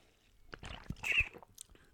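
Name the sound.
sipping a drink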